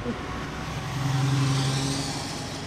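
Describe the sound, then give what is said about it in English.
Steady city street traffic: a continuous rumble of car engines with a low droning hum that swells briefly as a vehicle passes, with no voices. “I'm not sure that Ed Glaeser would like to smell or celebrate this traffic here”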